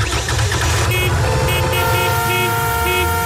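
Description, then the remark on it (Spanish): Loud car horns honk and blare over a steady low rumble of traffic, with several overlapping horn tones sounding continuously through the street noise, around a motorbike that has seized up in the middle of the road on the way to work. “Cuando se te gripa la moto en mitad de la calzada y de camino al trabajo, suena así.”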